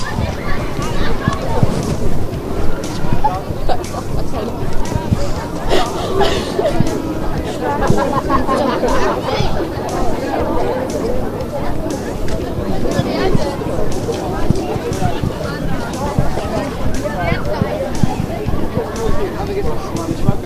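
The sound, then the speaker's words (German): A dense, steady babble of many overlapping young voices chattering and calling out at once on the schoolyard of the Lomar school centre in Loma during break, with no single voice standing out and constant loudness throughout. “Und zwar auf den Pausenhof des Lomarer Schulzentrums.”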